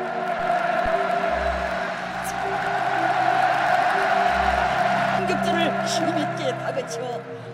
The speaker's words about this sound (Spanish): El campo con más capacidad no está ni en Europa ni en Sudamérica, sino en Pyongyang. Os dejamos escuchar cómo ruge en su momento más álgido, que no es celebrando un gol, sino aplaudiendo la reverencia que los jugadores le hacen al líder.